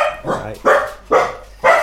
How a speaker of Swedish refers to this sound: Han skällde på er.